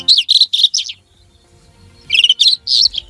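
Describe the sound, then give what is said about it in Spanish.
A rufous-tailed scrub robin sings loud phrases of bright chirping notes, a quick burst of several notes, a short pause, then another run of sweet, high warbling. “Este pajarillo que estamos escuchando cantar es la alzacola Rojizo, proclamada ave del año 2022 en la votación popular organizada por SEO BirdLife, una especie migratoria en peligro presente en Andalucía, Extremadura, Murcia y Comunidad Valenciana”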